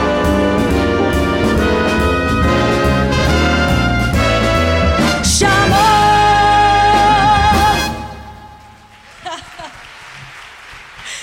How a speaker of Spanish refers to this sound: Sonaba, escuchábamos …, un texto de Ramón Otero Pedrallo con música y arreglos de … e interpretada por la …, dirigida por …